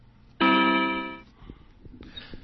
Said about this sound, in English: you heard a sound there. It's one of the three sounds that you could use to set yourself to wake up every morning. Let's check that out. Hello, Moshi. Command, please. Alarm sound. To choose an alarm sound, say alarm 1, alarm 2, or alarm 3. Alarm 1.